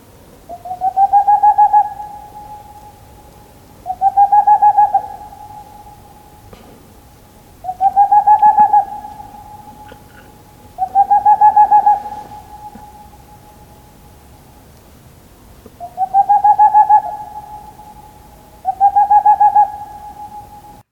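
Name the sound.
owl calling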